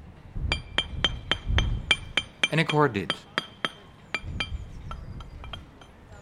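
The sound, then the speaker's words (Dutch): Street pavers laying paving stones on the Voorhout in The Hague: a dozen or so sharp, ringing metallic clinks struck in an uneven rhythm, with a brief spoken phrase cutting in partway through. “Stratenmakers maken de straat.”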